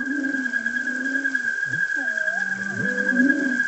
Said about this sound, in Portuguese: Esse barulho contínuo é o coro dos peixes. Lá no fundo, se você prestar atenção, você vai ouvir o canto langoroso da baleia jubarte.